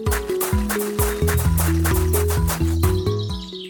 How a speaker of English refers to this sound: Can you hear the bush babies? Hmm, it sounds like there is a chicken with the bush babies.